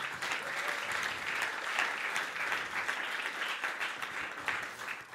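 Steady applause from a crowd for the worship team and the technical team, a dense wash of many hands clapping at once that holds at an even loudness for about five seconds with no voices standing out.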